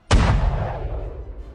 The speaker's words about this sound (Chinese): 我这就开枪给你看看！砰的一声，子弹出膛，朝着李炫直奔而去。